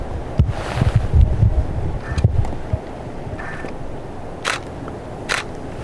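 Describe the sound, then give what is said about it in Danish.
A camera is fished out and handled amid gusty outdoor wind rumble, followed by two crisp shutter clicks near the end. “der er lige øh, fisket lige kameraet frem her.”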